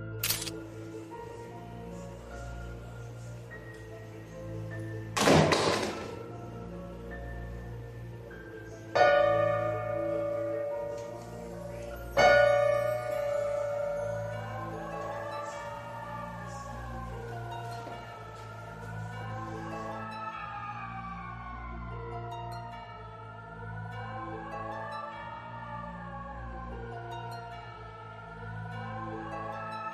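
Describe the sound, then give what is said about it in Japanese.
A piano in a house abroad, with no one present, plays by itself after its keyboard lid lifts on its own: a few sharp struck notes ring out one after another and sustain, followed by eerie, wavering tones that rise and fall steadily over a low droning background. No one speaks. “鍵盤の蓋が勝手に持ち上がって、ピアノが鳴ったわ。”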